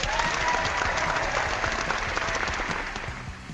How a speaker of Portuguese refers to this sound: Eu vou pedir uma salva de palmas ao nosso auditório.